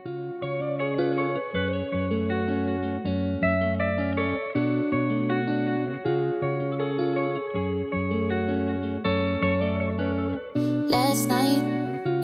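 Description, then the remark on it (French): A short instrumental music break with sustained, layered tones and steady chords, drenched in echo and effects, ending with a brief bright, hissy flourish near the close. No voices. “Allez, dernière courte pause musicale.”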